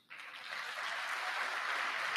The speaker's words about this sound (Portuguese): Nós podemos aplaudir Jesus por isso.